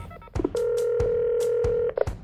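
Telephone line sounds: a steady, humming tone holds for over a second while sharp button clicks tap through it, as if a number is being dialed, in a call about buying a domain name. No voices, clear.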